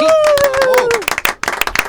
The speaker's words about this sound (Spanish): Aquí están, ellos son. Fuertes aplausos al capitán.